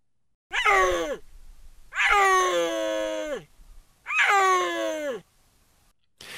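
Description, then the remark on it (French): A female snow leopard calling for males gives three long, moaning yowls in a row, each a loud, harmonically rich wail that rises, then falls and drags out, with short pauses between and the start of a fourth at the end. “Ce que vous venez d'entendre, c'est une femelle qui appelle les mâles.”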